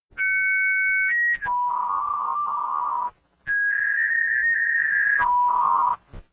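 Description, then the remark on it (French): A receiving modem answers a call from another modem with steady electronic handshake tones, asking whether the connection can start under a particular protocol, shifting between pitches with harsh buzzy stretches, loud, pausing briefly before another round of tones. “Là, c'est le modem destinataire qui répond et qui demande si la conversation peut démarrer selon un protocole particulier.”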